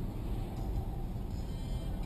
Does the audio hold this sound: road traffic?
yes